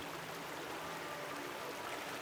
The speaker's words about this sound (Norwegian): Utenfor bymurene flyter elven Elbe.